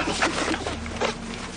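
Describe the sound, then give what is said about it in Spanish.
Dry, crackling rustle of branches and leaves in brief irregular bursts as frightened villagers stand up, over a steady low hum, with no voices. “Los aldeanos se muestran nerviosos tras la advertencia y se incorporan atemorizados provocando ruido de ramas.”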